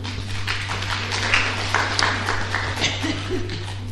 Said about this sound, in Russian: Спасибо большое. Аплодируем.